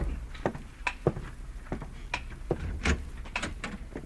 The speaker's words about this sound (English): I'll open the door.